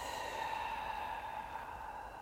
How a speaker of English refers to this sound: So breathe in. Hold for a second and breathe out.